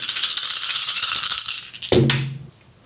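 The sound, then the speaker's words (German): Dice clatter and rattle in a rapid, bright burst for about two seconds, then a sharper knock as they land and settle, fading into quiet. No one speaks. “Okay, dann werfe ich mal die Würfel”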